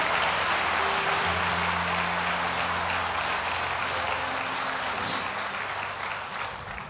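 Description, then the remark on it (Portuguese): An audience breaks into sustained applause for Jesus, a dense, steady wash of many hands clapping that holds loud for several seconds before easing slightly, with low tonal hums running underneath. “se você entende isso, você pode dar um glória a Deus, aplaudir a Jesus, fazer alguma coisa.”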